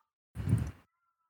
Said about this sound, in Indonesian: Aduh itu suara kucing gue kedengeran ya